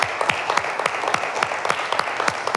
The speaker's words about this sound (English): If that's the case, give God a hand of praise because I heard some hands of praise about to break out.